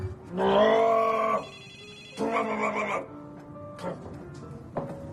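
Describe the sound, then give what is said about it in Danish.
A telephone rings twice, two loud, buzzy bursts about a second long separated by a short pause, heard clearly with no one talking over them. “Det er telefonen, der ringer to sekunder.”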